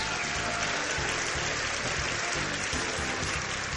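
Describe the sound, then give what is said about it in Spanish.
A burst of steady crowd applause played as a sound effect in tribute to the football club Napoli, dense and sustained for several seconds, with many hands clapping together at an even loudness and no voices over it. “José, por favor, tira un aplauso al Nápoles.”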